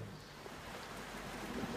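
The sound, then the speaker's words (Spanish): Steady, even rain hisses across the whole short stretch, with a faint low rumble of thunder underneath, during a storm with lightning. No one speaks. “un día como hoy, con agua, truenos y relámpagos.”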